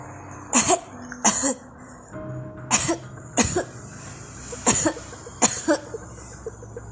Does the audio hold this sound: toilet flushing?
no